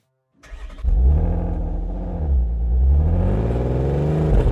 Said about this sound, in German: Und so stieg mein erster Gast dann wieder in seinen Audi A8 und macht sich auf den Heimweg.